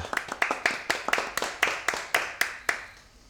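Live applause from a small audience: a series of crisp, fairly regular hand claps, moderately loud, trailing off and fading toward the end.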